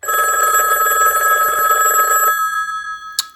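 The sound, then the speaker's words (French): A telephone rings loudly with a rapid, trilling electronic bell for about two seconds, then stops, followed by a short beep before an answering machine message. “Donc on va écouter un petit répondeur de la cancaneuse”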